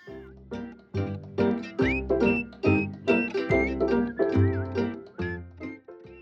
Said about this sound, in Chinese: 听到碧玉的声音，应该就知道今天的主角又轮到猫猫同学们啦。